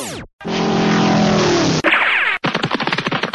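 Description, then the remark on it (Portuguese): A loud, roaring engine howls past with a falling pitch, then breaks into a rapid, rattling burst of revs, like a race car tearing by on a track. No one speaks. “É, na rua você corre a pé, na pista você corre de carro.”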